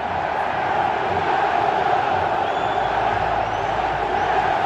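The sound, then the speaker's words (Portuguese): A large football crowd roars in a steady, unbroken mass of voices, chanting "é campeão" and cheering loudly together from all around, with no single voice standing out. “Vocês gritarem meu nome e mais uma vez é campeão, ou melhor, bicampeão. É bom demais da conta ouvir isso, senhor.”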